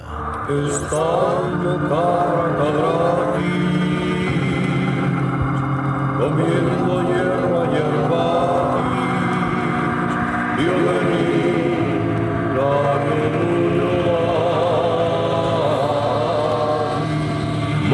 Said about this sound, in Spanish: ¡Ojo! ¡Ojo! Que hoy cambia la sintonía.